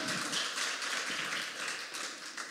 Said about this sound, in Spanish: Iglesia, ¿alguien está escuchando eso? ¿Alguien está aquí? Que le dé un aplauso al Señor. Venga.